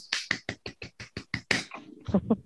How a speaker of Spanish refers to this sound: Está aplaudiendo para los que nos estáis escuchando en el podcast.